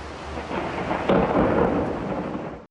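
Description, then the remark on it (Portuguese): A sharp, loud thunder crack bursts out over steady rain right after a lightning flash in Goiânia, Brazil, then rolls into a deep rumble that fills the rest of the moment before cutting off abruptly. “Primeiro, um clarão. Logo depois, o estrondo.”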